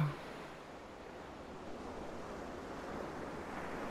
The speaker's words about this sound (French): Sentez, entendez le souffle du vent marin.